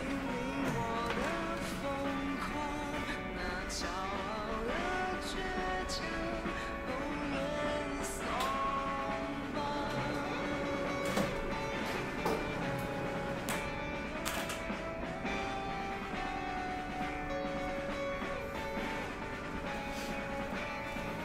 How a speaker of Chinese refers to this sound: 还有点热，我去开个电风扇。